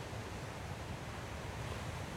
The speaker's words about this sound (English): the tide washing in and washing over your feet,